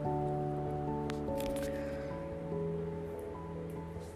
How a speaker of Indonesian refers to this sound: di dalam sauna kosnya panas sekali panas banget kalau kalian dengar podcast ini ada kipas angin itu ya ini